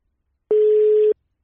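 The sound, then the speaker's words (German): A single steady electronic telephone ringing tone, heard while placing a call, sounds for about half a second, clear and fairly loud, with abrupt start and stop and no voices around it. “Da wollen wir jetzt gleich mal mit ihm, äh, mit ihm telefonieren und deswegen rufen wir ihn direkt mal an.”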